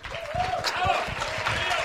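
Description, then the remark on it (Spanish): An audience applauds to welcome a speaker, a dense, steady patter of many hands clapping at fairly loud volume for about two seconds, with a few voices faintly mixed in. “Entonces, por, favor, recíbanme con un fuerte aplauso a mi princesa.”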